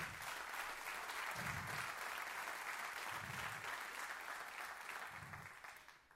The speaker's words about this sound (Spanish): Dale fuerte el aplauso al Señor.